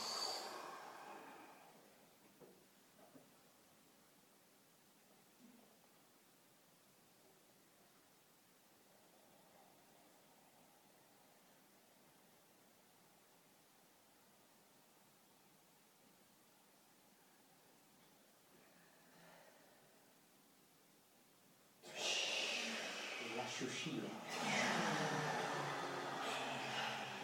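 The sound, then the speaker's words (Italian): A sharp, deep breath in, filling the lungs to the maximum, then a long stretch of near silence as the breath is held, ending in a loud, rushing exhale. “pronta a prendere aria e a sospendere il respiro. Via, riempo al massimo e trattengo.”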